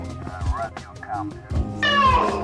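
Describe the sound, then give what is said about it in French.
A person imitates a cat's meow, a loud, drawn-out, high-pitched cry with a falling pitch near the end, following some quieter vocal murmurs. “Oh putain, tu fais super bien le chat.”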